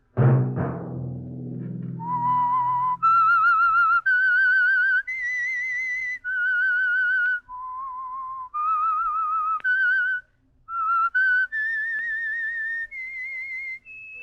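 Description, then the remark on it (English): The whistled theme of The Whistler radio program, sponsored by the Signal Oil Company: a lone slow, eerie tune of sustained pure notes that rise and fall with brief gaps, clear, following a short low rumble at the start. “Let that whistle be your signal for the Signal Oil program, The Whistler, each Monday at 9.”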